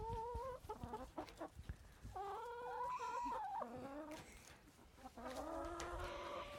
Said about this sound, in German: hält den Hühnern jetzt gerade Löwenzahn hin. Man hört es richtig picken. Und bocken.